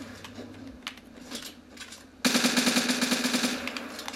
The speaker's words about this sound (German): Die macht halt 16 Schaden pro Schuss. Das ist so overpowered. Die Gegner denken sich nur so, Junge, was für ein Hack hat der denn an, dass er so schnell schießen kann?